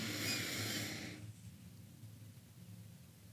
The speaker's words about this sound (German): wie wichtig das ist, bewusst zu atmen, bewusst ein